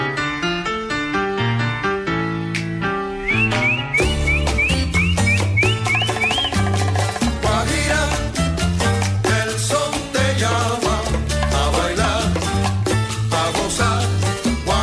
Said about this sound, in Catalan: Canciones, danzones, sones, guarachas, pregones, rumbas, congas, guajiras, como la que sentim de fons